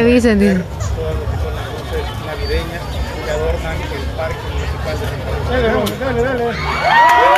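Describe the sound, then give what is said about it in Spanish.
A large crowd cheers and shouts continuously at the lighting of the Christmas lights in the Central Park of Santa Rosa, with excited voices and whoops rising over a dense babble of many people, loud throughout. “Mira, llegó bastante gente.”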